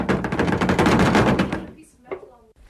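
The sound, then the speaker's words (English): A loud, rapid rattling clatter runs for about a second and a half, then gives way to a few quieter knocks and rustles. Foley made with a suitcase and a car door to imitate the rattle inside a messy van, for the Conor McPherson film The Actors. “we're in the back of a van, so we're doing interior van. It's a real messy van, and we're trying to make it rattle.”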